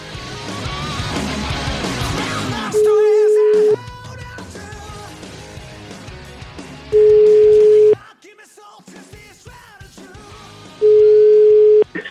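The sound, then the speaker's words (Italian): An outgoing phone call's ringing tone, Cruciani calling Naples, sounds three times, each a steady one-second beep at an even interval of about four seconds, clearly audible over busy background music and voices. “Ragazzi, siamo quasi in conclusione, ma per la serie Cruciani chiama Napoli, sentite questa, Cruciani chiama Napoli.”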